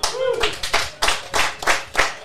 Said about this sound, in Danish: Nå, nu, øh, nu blev der simpelthen klappet. Jeg havde simpelthen regnet med, at folk ville grine, men øh, før.